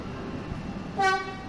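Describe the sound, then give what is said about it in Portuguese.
A commuter train with overcrowded carriages at Pragal Station, the last before the 25 de Abril bridge to Lisbon, rumbles steadily, then sounds one short, bright horn toot partway through before the low rolling noise continues. No one speaks. “Com carruagens sobrelotadas, é um autêntico desafio tentar entrar na Estação do Pragal, a última, antes da ponte 25 de Abril”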